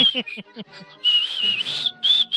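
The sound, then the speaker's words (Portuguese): Someone whistles a short, bouncy march tune, the theme from the film The Bridge on the River Kwai, with clear sustained notes rising and falling, after a brief burst of voiced, rhythmic vocal sounds at the start. “Eles ficam assoviando assim.”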